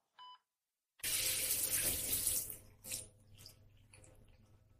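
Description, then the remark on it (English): A brief electronic beep, then a hotel shower bursts on with a loud, steady hiss of spraying water. After a couple of seconds it fades to quieter, uneven splashing and dripping. No one speaks. “I had just stepped out of the hotel shower when the news report started.”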